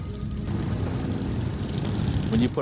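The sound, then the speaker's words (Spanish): A steady, throaty roar of Harley-Davidson motorcycle engines rumbles continuously and fairly loud, with a brief rising tone near the end. “Cuando se reúnen 30 o 40 Harleys, se las oye venir a 4 kilómetros de distancia, ya que emiten un sonido característico.”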